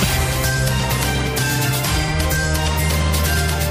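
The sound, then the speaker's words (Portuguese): A loud, steady burst of jingle music with sustained deep bass notes that shift partway through, bright layered tones and regular percussive hits driving the rhythm. No voices are heard. “Rola aí a vinheta, vai.”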